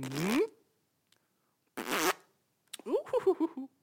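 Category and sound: vocal imitation, imitated fart sound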